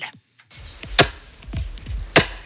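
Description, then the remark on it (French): Mountain farmer Michael Alamand drives posts into the ground for a new fence in a clearing a few minutes from Charmet, canton of Fribourg, Switzerland: two loud, sharp metallic strikes with softer booming knocks in between, irregularly spaced, with no voices. “Le bruit que vous entendez en fond, c'est Michael Alamand qui est en train de planter des pieux pour une nouvelle barrière.”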